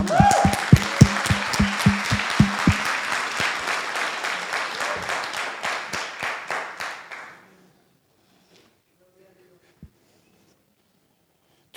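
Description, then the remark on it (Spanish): A burst of applause from a group, dense rhythmic clapping that starts strong, gradually thins and fades out after about seven seconds, followed by near silence with a faint tap. “¿Ibas a aplaudir?”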